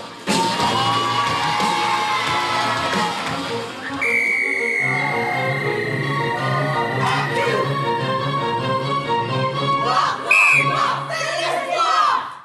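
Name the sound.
audience applause and cheering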